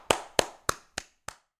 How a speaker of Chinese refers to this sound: 没想到才刚停下来，就听见有人在鼓掌，鼓掌，applaud，applaud，好酷哦！